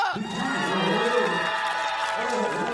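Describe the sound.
A crowd of citizens at Wolmido amusement park in Incheon, South Korea, in front of the Disco Pang Pang ride, cheers and shouts together in a sustained, loud roar, with high excited voices and whoops layered over a dense wash of noise for the whole few seconds.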